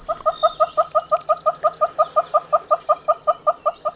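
A Toko hornbill gives a long, steady run of rapid clucking notes, about five per second, evenly paced and fairly loud, with faint insect-like buzzing in the background.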